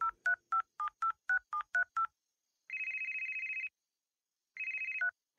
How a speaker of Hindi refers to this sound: फिर मैंने अपने घर फोन किया